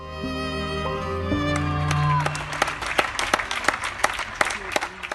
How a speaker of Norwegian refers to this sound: Klokka åtte hver dag så står vi alle og klapper for måte, helsearbeiderne. Og det har jo fått en sånn stor eh, eh, anerkjennelse nå, ikke sant?